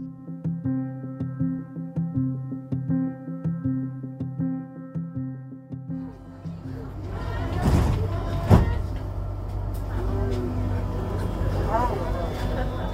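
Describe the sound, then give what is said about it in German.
A steady humming, tonal drone fills the first half, then the rumbling, hissing noise of a subway train ride takes over, with a couple of sharp clacks and continuous low rolling. “Ich sitze in der U-Bahn und bin auf dem Weg zu Paul A.”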